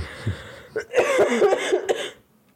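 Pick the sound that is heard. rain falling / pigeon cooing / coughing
coughing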